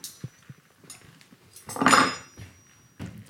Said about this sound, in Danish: Du får lige en øh, kniv og gaffel her.